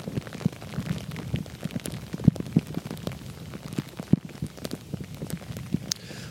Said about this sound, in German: Ich weiß nicht, ob und wie gut man es hört, aber das hier ist Regen, der auf meine Kapuze und auf meinen Mützenschirm fällt.